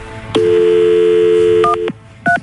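A steady telephone dial tone hums for over a second, then two short, bright keypad beeps sound as a number starts being dialed. No one speaks.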